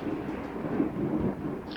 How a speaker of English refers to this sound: And that's one hell of a storm you got there. Yeah, that that, that just hit me on the knee. Not really. That was outside, but it was close.